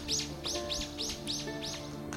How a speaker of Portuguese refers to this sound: Ah, falando em passarinho, isso é algo que na primavera vai ser muito constante. A gente acorda com o canto dos passarinhos. Acho que é o primeiro canto que eu ouço de passarinho desde o início do inverno. Realmente eles estão voltando.